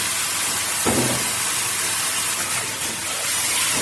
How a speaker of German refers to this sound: Muss ja nur einmal Wasser drüber laufen und dann lassen wir es ein bisschen abtropfen.